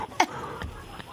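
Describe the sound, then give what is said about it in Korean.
A person imitates a crow's caw: a sharp, raspy call near the start, followed by a couple of softer, shorter croaks, fairly quiet overall. “자, 까마귀.”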